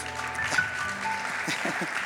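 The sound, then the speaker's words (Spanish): A crowd applauds for Jesus in a steady, dense wash of clapping that fills the whole two seconds, with a few voices faintly audible underneath. “Me trajo una pastilla un aplauso a Jesús.”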